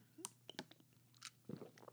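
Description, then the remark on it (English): Someone sips water: a quiet run of small wet mouth clicks and a soft gulp or two, with no talking. “sip on water just because I've been running my mouth all day.”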